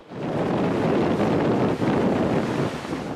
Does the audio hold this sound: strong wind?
yes